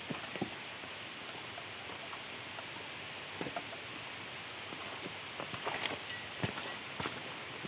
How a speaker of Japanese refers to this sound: これもしかして熊よけの鈴ってことは熊が出るんですか